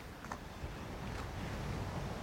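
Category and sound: nature, rushing sea waves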